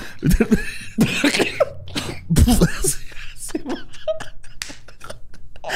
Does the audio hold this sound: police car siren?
no